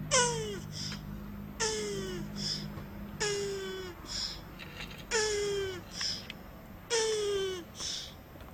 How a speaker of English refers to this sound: That that sounds like me after I ate like three fiber one bars. Do you know what the title of that sound is? No. Turtle sex.